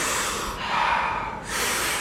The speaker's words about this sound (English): taking about 40 powerful breaths into the body